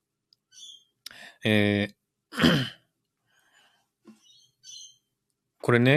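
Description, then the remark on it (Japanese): Short, high bird chirps come in bursts, scattered between and beneath a person talking and clearing their throat; the birds have been very loud yesterday and today. “あ、鳥の声、そう、鳥の声だ、そうそう、さっきも言ったんですけどもね、鳥の声がね、昨日と今日とすっごいうるさいんですよ。”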